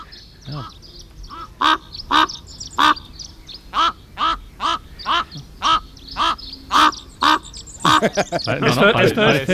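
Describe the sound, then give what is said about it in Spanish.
A crow caws again and again at a mountain lookout above the Caldera de Taburiente, in a steady series of about a dozen loud, harsh calls, ending in a denser burst of overlapping squawks. “Están nuestros amigos los cuervos.”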